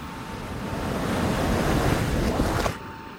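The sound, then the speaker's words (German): Sea waves wash in with a broad, hissing rush that builds steadily, then drops off sharply as the water pulls back, with light wind noise throughout. “Als ich wieder aufwachte, pfiff das Meer seine Wellen zurück.”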